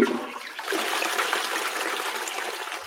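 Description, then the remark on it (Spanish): A toilet flush sound effect played from an audio console, a steady rush of water, loud, swirling and hissing for a few seconds with no voices over it. “Este sí suena inodoro de verdad.”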